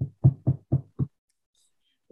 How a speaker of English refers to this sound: We're gonna knock, and then we're gonna cover the people.